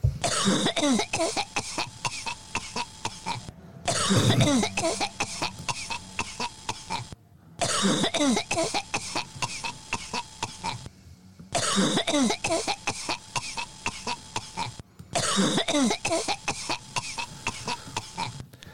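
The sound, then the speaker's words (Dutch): Thierry Baudet coughs over and over in harsh, throaty bursts with some throat clearing, from the debate on the government statement, the sequence broken by short silent gaps and seemingly repeating, fairly loud. “Want die ging hoestend naar huis.”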